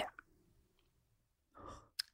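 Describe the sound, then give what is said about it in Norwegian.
A faint, low gurgling rumble of a stomach drifts along for about a second, then a brief louder gurgle swells up, ending with a short click. No one speaks. “Hører du magen min? Var det magen din?”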